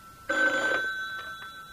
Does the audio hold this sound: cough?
no